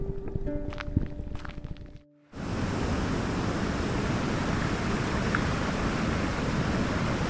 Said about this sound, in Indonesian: Hmm, lebih tepatnya sih menembus air terjun ini.